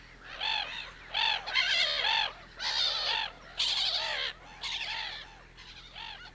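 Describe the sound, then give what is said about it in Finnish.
Harsh, raucous squawking from a black-headed gull colony raising alarm, about seven overlapping bursts of grating calls in quick succession, loud and continuous with no talking. “todellisuudessa kolonia tarjoaa muille linnuille hyvän turvan naurulokkijoukolta ei jää varikset, kanahaukat, minkit ja supikoirat havaitsematta, ja meteli kutsumattoman vieraan ilmaantuessa on valtaisa.”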